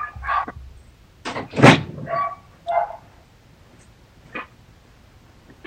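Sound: dogs barking excitedly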